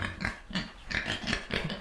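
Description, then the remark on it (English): A pig oinks in a quick series of five or six short, rough grunts, fairly loud, with no talking over them. “That sounds like a pig in the studio.”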